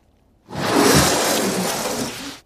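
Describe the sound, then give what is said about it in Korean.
A curtain is yanked open hard in one sustained, hissy rush of fabric and rings lasting about two seconds, loud and bright, with no voices. “예, 이게 보니까 커튼 젖히는 소리랍니다.”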